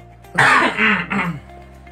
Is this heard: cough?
yes